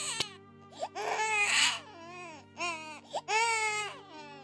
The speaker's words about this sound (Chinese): 原本安全感很高的宝宝们也变得敏感惊恐，很难安稳的喝奶和入睡，哭声时不时的就会在房间里炸开。